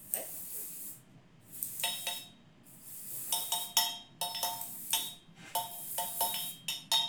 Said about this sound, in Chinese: 嗯，好加上一点骰子的声音。